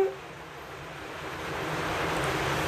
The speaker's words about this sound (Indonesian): Hujan. Wah, pas banget cuaca. Pas siaran. pas pas banget suaranya makin terpendam.